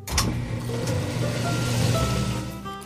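A washing machine at a self-service laundromat starting a wash cycle with a duvet and clothes, with a steady mechanical motor hum and a low droning whir that holds for a few seconds. No one speaks.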